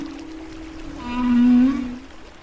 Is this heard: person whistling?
no